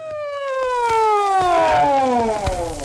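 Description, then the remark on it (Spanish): An ambulance siren wails loudly and steadily as the ambulance heads straight to the hospital, its layered tones sliding gradually downward in pitch across the whole stretch, with no voices over it. “Lo metieron en la ambulancia y fueron directo al hospital, amigo.”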